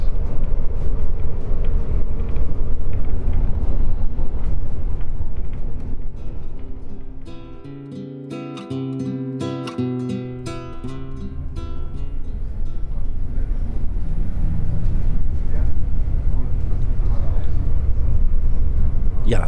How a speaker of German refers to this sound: Mittlerweile bin ich äh, eine halbe Stunde weitergekommen und äh, sitze jetzt gerade wieder immer noch als einzig zweiter Passagier hier in dem Waggon.